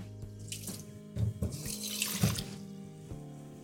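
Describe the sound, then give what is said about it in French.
Tap water runs into a small bowl, a steady splashing hiss with low gurgling bursts that rise and fall in loudness as the bowl fills, with no voices. “Je m'arrête là, je prépare un petit bol avec de l'eau.”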